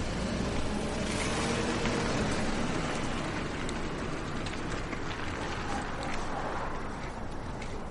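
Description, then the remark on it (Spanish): A car engine rumbles steadily with broad road noise as a woman gets in and the car pulls off and drives away, holding a fairly constant level that eases slightly near the end. “Una mujer se monta en el coche y se marcha.”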